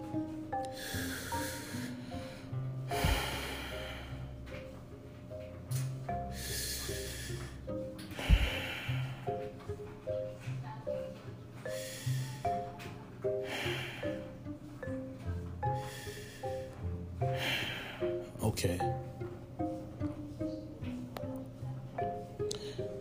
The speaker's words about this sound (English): So, with that in mind, do a little breathing exercise in a yoga pose.